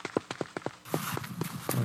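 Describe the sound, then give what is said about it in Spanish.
Quick, evenly spaced footfalls of someone running, about four steps a second, fairly loud, with a rougher rushing noise building up behind them halfway through. “Corre que lo alcanza.”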